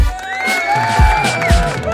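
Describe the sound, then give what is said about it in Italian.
A crowd cheers and whoops loudly, with high voices and rising whistles over a dense wash of noise and a couple of low thumps, sustained for the whole moment. “Eh, applausi”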